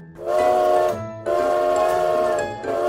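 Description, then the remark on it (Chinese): A steam train whistle sounds in long, loud, steady blasts: one, then a longer second, and a third just starting. Each blast is a rich, multi-toned hoot with a low rumble beneath and no talking. “不然我们去坐蒸汽火车好吗？”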